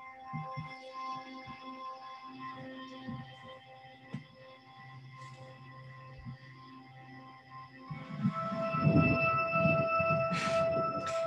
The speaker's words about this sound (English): The thunder is adding some background effects.